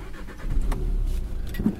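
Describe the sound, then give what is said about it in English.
A small diesel engine of a Renault Kadjar car cranks and catches, settling into a low, rumbling idle, with a brief rev near the end and no voices. “It's a little diesel.”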